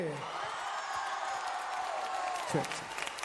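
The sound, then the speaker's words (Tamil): A crowd claps steadily and densely throughout for a pastor, with loud cheering and a rising-then-falling whoop that drops off sharply near the end. The applause stays sustained. “வாங்க பாஸ்டர்னு சொல்றவங்க இப்ப நல்லா கைய தட்டி”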